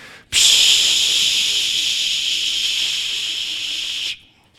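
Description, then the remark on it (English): People at Highway Church voice a long, steady hiss imitating spraying cans of "dereligification spray", one continuous loud breathy spray lasting nearly four seconds before cutting off abruptly, with no talking. “Let's all shake it because we have to dereligify this verse. All right, let's all spray.”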